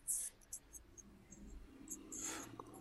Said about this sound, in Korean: 그쪽에서 뭔가 그그거리는 소리가 많이 들리는데 지금 뭐 하세요? 아니요 잠깐만요 아 이어폰 줄 조정하는데 그렇게 소음이 났구나 아 죄송합니다 마이크가 거기 달렸잖아요